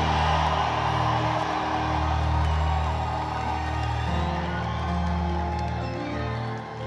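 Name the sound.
audience cheering and shouting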